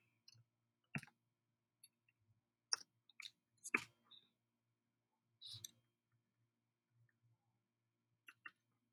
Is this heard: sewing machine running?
no